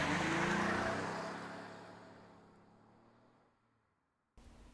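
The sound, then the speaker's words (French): A car engine roars loudly at first, then steadily fades as the vehicle speeds off, leaving near silence before a brief burst of noise at the very end. “Et bah, ils s'arrêtent tout de suite, ils la font grimper dans la voiture et ils foncent.”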